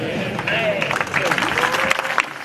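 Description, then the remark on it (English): A bullfight crowd cheers loudly at the matador's sword strike, waving white handkerchiefs, with steady applause and scattered shouting voices blending into a dense, continuous roar that holds throughout. “The crowds cheer at the skillful strike, waving white handkerchiefs to show the torero deserves a bull's ear for his performance.”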